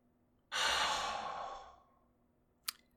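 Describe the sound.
A person imitates Darth Vader's mechanical respirator breathing: one long, hissing, rasping breath about a second and a half long, fairly loud, followed by a short click.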